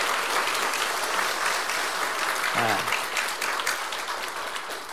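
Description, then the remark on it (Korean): Steady, dense applause from an audience at a Remnant Day church gathering, clapping for God's blessing, fills all five seconds at an even loudness, easing slightly at the end, with a brief voice surfacing partway through. “And let's in the round of applause that God bless.”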